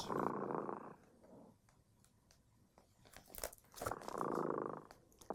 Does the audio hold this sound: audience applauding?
no